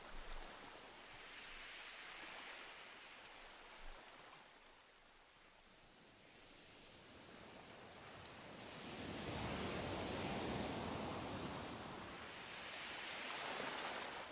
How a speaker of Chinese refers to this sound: 此刻，你听见浪花。拍击着沿岸的声音，每一个浪花的兴起、破碎，就如同感受到生命的起、沉、转、合。